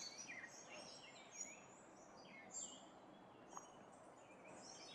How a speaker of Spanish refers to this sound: Ahí está el silencio para que puedas escuchar las aves.